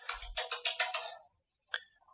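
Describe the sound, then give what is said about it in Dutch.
A phone ringtone sounds as a quick run of about six bright, buzzy electronic pulses, then a short pause and a single higher chirp with a brief tail. No one speaks. “dat was even de telefoon.”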